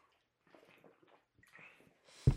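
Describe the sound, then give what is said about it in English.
Quiet sips and swallows of water, soft wet gulping sounds over a couple of seconds, ending with a sudden loud thump as something is set down. “And excuse me, let me get a swing of water real quick.”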